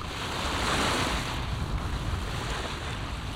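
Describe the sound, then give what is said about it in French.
Steady roar of Pacific Ocean waves breaking and washing in, recorded in 1982, a broad continuous rush with gentle swells in loudness, some wind noise mixed in, no voices. “Nous commençons l'émission avec le son des vagues, un enregistrement de l'océan Pacifique de 1982.”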